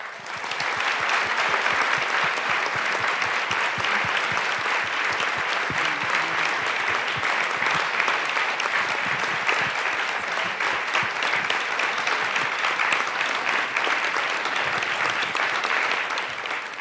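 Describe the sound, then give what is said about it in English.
Sustained applause from a large audience welcoming panelists Calvin Trillin, Roz Chast and Daniel Menaker, a dense steady patter of many hands clapping at an even loudness for over fifteen seconds, with no one speaking. “So, would you welcome, please, Calvin Trillin, Roz Chast, and Daniel Menaker?”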